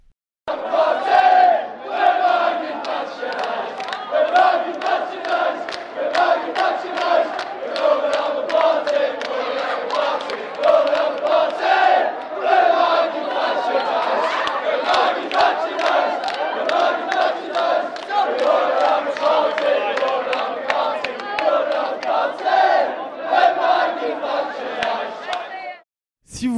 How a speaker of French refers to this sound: il y a quand même eu des chants de supporters, notamment à Sunderland